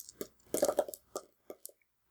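Eight six-sided dice, four black and four white, rolled on a table: a quick cluster of clattering knocks, then several separate lighter taps as the dice tumble and settle, fairly quiet with no voices.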